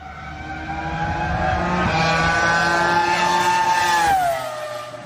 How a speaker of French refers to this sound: L'image de la semaine, mesdames et messieurs, c'est un monsieur qui roule dans une voiture rouge et ça fait ce son-là.